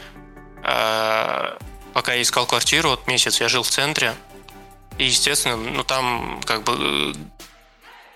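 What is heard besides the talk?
sneeze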